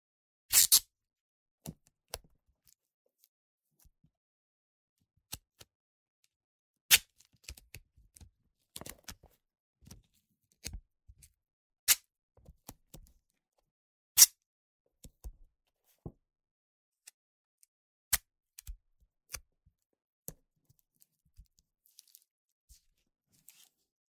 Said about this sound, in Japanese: 隙間がないようにテープで覆う。細かく切ったテープを重ねて貼って、丈夫にする。